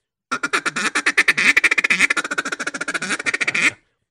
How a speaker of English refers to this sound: He's never sat next to anybody blowing a duck call like this. I guarantee it. Yeah, and you can yeah. hear me putting drag quacks in there.